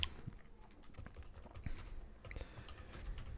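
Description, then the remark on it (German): Rapid typing on a computer keyboard, a steady stream of crisp key clicks with irregular rhythm, fairly quiet and with no voices. “ähm, man soll nicht tippen, wenn man gleichzeitig einen, Podcast. äh, äh, Podcast macht.”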